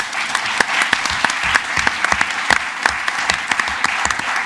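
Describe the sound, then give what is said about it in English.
An audience claps steadily to welcome a guest speaker, a dense wash of overlapping handclaps with a few sharper individual claps standing out, sustained and fairly loud throughout. “Can we give him a warm welcome, please?”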